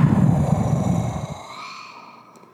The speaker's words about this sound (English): And as you wrap your writing or reflecting, take another deep breath. Deep breath in. And deep breath out.